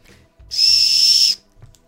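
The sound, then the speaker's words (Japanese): A single loud, shrill blast from an emergency whistle sold at a 100-yen shop, a steady piercing tone lasting just under a second, with faint handling noise before and after. “ホイッスルですねちょっと鳴らしてみましょうか”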